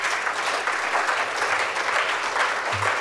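Steady audience applause, a dense wash of many hands clapping at an even, fairly loud level throughout, with no clear pauses or individual claps standing out, as a literary guest walks to the podium.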